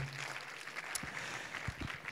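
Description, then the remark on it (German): An audience at a church service claps together in a steady wash of applause for Jesus, many hands blending into a continuous, moderately quiet patter, with no one speaking over it. “Da dürft ihr Jesus auch einen Applaus geben.”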